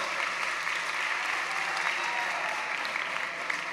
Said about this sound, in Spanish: Ah, muy bien, démosle un aplauso al ganador. ¿Dónde está el ganador?